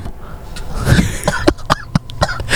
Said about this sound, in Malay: Saru sampai terbatuk eh. Tak maaf, tak maaf.